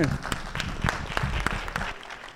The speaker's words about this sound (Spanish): ¡Wow! Hay que dar un aplauso. Muy bien.